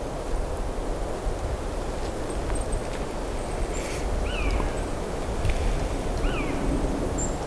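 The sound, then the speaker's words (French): A constant breeze blows through a forest in winter as a steady, even rushing hiss, with two brief, faint bird chirps rising above it partway through. No one speaks. “Une brise constante dans la forêt. Produisant ce souffle”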